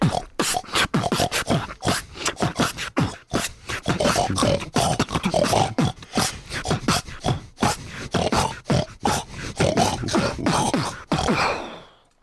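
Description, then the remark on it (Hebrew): A show's producer imitates a pig with a long, rapid series of snorting grunts and squeals, loud, running continuously for several seconds before trailing off. “הוא יודע לעשות קולות של חזיר.”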